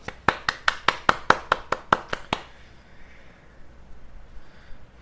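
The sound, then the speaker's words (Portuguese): About a dozen sharp, crisp hand claps in a quick, steady rhythm for roughly two seconds, then they stop and only a faint low hiss remains. “Palmas, palmas, palmas, palmas.”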